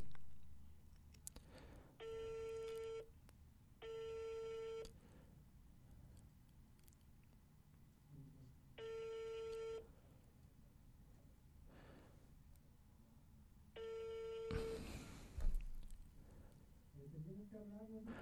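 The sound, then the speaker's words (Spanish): A telephone busy tone from a call attempt on another phone sounds in four steady, buzzy electronic pulses, each about a second long with uneven pauses between them, fairly loud against a quiet background with a brief rustle near the end. “Voy a intentar con este otro teléfono a ver si nos permite.”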